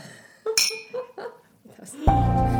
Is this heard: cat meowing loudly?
no